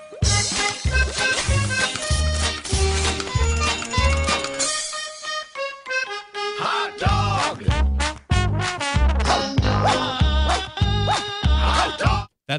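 A bouncy, upbeat cartoon dance song from Mickey Mouse Clubhouse with a steady thumping beat and bright melody, briefly dropping out midway before the full groove kicks back in, loud with no talking.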